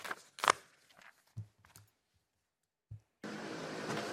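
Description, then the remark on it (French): An electric scooter ridden haltingly outdoors in Paris by a first-time rider: a few scattered knocks and bumps with pauses between them, then a steady, airy whir of motion and street noise that carries on to the end. “Laurent essaye pour la première fois de conduire un scooter électrique.”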